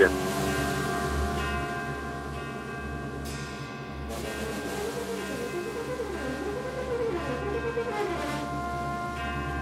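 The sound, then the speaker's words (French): A dense, sustained chord of shimmering bell-like overtones hovers over a deep low drone, swelling slowly with no talking: Michael Levinas's spectral piece Appel, composed from the resonance of a B-flat gong. “Voilà, appel de Michael Levinas, composé donc à partir d'un gong en si bémol.”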